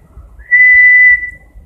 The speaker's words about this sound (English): She likes to whistle.